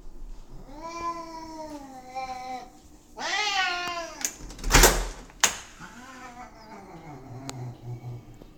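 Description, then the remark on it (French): A cat meows insistently, three long, wavering, complaining cries in a row, as it waits to be let outside, with a couple of sharp clacks like a door latch between the second and third as the door is opened for it. “Voici Chico quand je vais lui ouvrir la porte pour sortir.”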